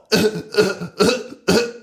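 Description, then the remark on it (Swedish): A voice imitates a child coughing frantically with a throat full of sprinkles: four harsh, rapid coughs in a steady rhythm, fairly loud, with no other talking. “satte Elvis massa strössel i halsen och började frenatiskt hosta”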